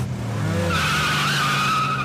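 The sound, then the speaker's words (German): A car carrying several men with sacks revs hard and speeds away from a destroyed Deutsche Bank branch, tires screeching loudly; the high squeal rises over a low engine roar and holds steady to the end, with no voices. “Mehrere Männer schleppen Säcke zu einem Auto, springen hinein und rasen davon.”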